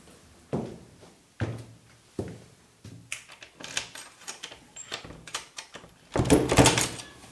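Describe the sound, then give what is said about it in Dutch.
A front door opening and closing as a man goes out through it: a few sharp thuds, then rattling latch and handle clicks, ending in a loud slam. No one speaks. “Hij ging de voordeur uit.”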